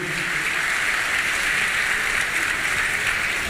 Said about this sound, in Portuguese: Eu queria chamar aqui à frente o pessoal do M18 que está aqui em BH fazendo uma campanha nesses dias. Queria que a igreja os recebesse com uma salva de palmas, com alegria.